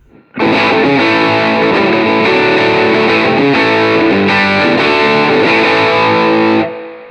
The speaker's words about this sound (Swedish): Precis, och så slår jag över den till fuss. Då låter det så här då med, samma, med, med den inställningen helt enkelt. Och fullt på gitarren här också.